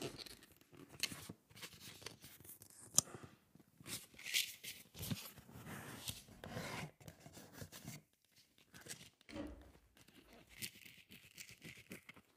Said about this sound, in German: So, ähm, reißen wir das mal auf hier. Ja, breche ich mir gleich wieder meine Fingernägel ab.